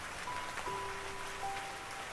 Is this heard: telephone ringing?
no